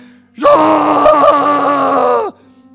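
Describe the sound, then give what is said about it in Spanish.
A single loud, drawn-out groan of pain, strained and voiced, lasting nearly two seconds before cutting off abruptly. A man vocalizes it alone, with no other sounds around it, after hitting his own finger with a hammer while fixing something with a nail. “si yo estoy arreglando algo con un, un, martillo y un clavo, y doy en, la dedo, en el dedo, hago...”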